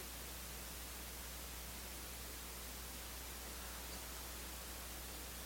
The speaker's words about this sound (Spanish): Porque está el sonido de, del aire acondicionado.